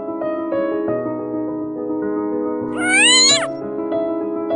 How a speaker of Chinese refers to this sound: 快走开！该死的流浪猫，离我远点